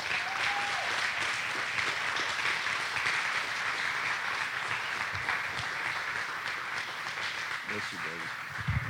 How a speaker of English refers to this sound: So if you would, won't you welcome him up here this morning and give him a hand clap?